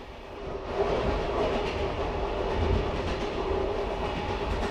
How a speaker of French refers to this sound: Dans la nuit, le train franchit la frontière, et lorsqu'il débarque au matin, il y a du verglas dans l'air.